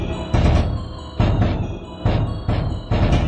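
A loud drum jingle: heavy booming drum hits land in a steady, dramatic pattern roughly every second, each one ringing out before the next, with no voices.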